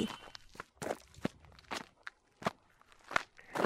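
Footsteps of two people walking home at a steady, unhurried pace, each step a short crunchy scuff on gravel or dry ground, with quiet pauses between. No one speaks.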